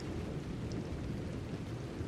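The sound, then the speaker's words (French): Heavy thunder rumbles low and steady through a storm, a dense roar with the hiss of rain layered on top, loud with no let-up. “Elle est loin. Mais elle a vu le ciel se déchirer d'un éclair et elle a reconnu la lumière.”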